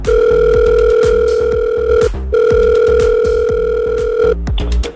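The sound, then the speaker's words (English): A phone rings out as the Jeremiah Show on 96.5 Kiss FM calls a listener back: two long steady ringback tones separated by a short pause, loud, over a repetitive rhythmic backing pulse. “It's uh, the Jeremiah Show, 96.5 Kiss FM, calling you back.”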